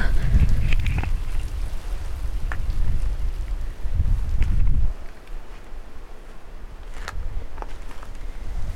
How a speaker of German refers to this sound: Und da der Wind sucht seinen Weg da durchs Tal durch und da hört man es auch richtig gut.